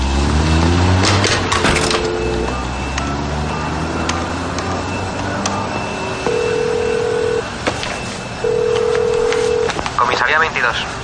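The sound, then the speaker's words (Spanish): A man at home dials a telephone number to call a police inspector, with short electronic tones followed by two steady, evenly spaced ringing beeps. Low traffic rumble and faint background noise continue underneath throughout. “Charles se pone las gafas y marca un número de teléfono.”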